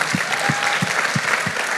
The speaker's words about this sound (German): Ja, äh, vielleicht können wir nochmal unseren ganzen äh, Pastoren und Predigern, die heute schon so Hammer gepredigt haben, nochmal einen richtig dicken Applaus dafür geben.